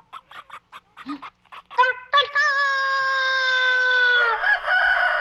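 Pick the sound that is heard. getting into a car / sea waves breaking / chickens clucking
chickens clucking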